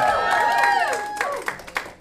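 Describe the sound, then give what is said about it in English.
A crowd at a live drinking-story comedy show cheers and whistles on request, with high sustained whoops rising over a wash of applause, then a few sharper claps break through as the noise starts to thin out. “Make some noise. Come on.”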